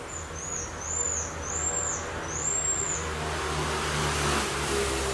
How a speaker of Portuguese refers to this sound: O sauim de coleira, um primata encontrado apenas na região de Manaus, no Amazonas, costuma disparar gritos finos para afirmar sua presença.